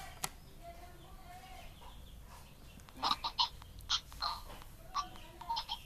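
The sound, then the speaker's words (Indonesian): Rural outdoor ambience with a steady background hiss and a run of short clucking calls from chickens, bunched into quick bursts in the second half. “halo ini su suaranya kayak ini di Cirebon susah banget ya sinyalnya kayak di pedesaan atau di sawah gitu”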